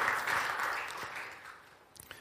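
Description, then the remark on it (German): A dense wash of applause from a group, fairly soft, that gradually thins out until only a few scattered claps remain at the end. No one speaks over it. “Ein Applaus für”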